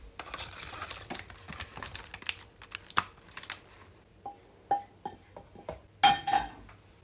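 Pudding mixture is poured and scraped into an oblong loaf tin lined with greaseproof paper, with a run of quiet taps and soft scrapes of a utensil against the bowl, ending in a few sharper clinks. No one speaks.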